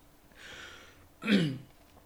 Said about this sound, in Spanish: No, pero esto es para... Esta tos que traigo es para anunciar un patrocinador.